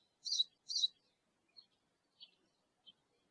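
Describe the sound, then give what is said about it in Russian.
A small bird sings: two loud, bright chirps in quick succession, followed by three softer, shorter notes spaced apart, with no talking. “Я думаю, кто у меня так громко над духом поет? Он прям сел мне реально на духа.”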